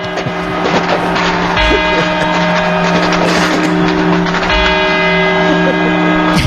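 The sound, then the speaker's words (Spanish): Clock tower bells chime the four quarters that precede the New Year campanadas, each loud strike ringing out with long sustained overtones, new notes landing about every three seconds over a dense, humming background. No one speaks. “Estos son los cuatro cuartos.”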